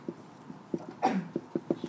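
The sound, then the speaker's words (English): One quick, breathy sneeze bursts out midway, loud against a quiet backdrop of soft, evenly spaced low taps, with no talking. “Bless you.”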